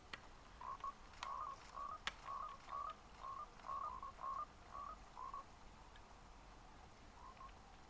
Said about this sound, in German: Was ist das? Seit wann gibt's Frösche? Und was bringen die, wenn man die tötet?